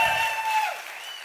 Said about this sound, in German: Ähm, einmal kurz einen wirklich tosenden Applaus, weil diese äh, Herrschaften, die haben wirklich mit uns so zu leiden. Ähm, also wirklich, es wäre toll, wenn ihr jetzt einmal, wir machen einmal Lärm, so, einmal klatschen, einmal bitte jetzt.